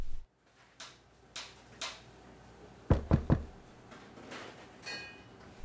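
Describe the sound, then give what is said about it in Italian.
Three heavy, rapid knocks pound against a door as a man knocks hard on a hospital door that is being held shut against him, loud and forceful, with fainter thuds and rustling around them and no voices. “Un uomo bussa forte contro una porta che gli viene tenuta chiusa.”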